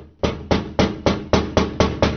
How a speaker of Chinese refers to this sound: 窗户开始传出敲打的声音，一旁的人也陆续发出了惊慌的声音。